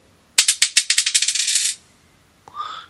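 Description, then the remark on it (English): A rapid run of sharp clicks speeds up into a dense rattle as dice are shaken and rolled across a hard surface, the fourth of five dice rolls, followed by a short ringing chime. “Dice 4.”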